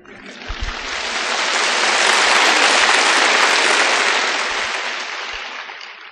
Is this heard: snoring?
no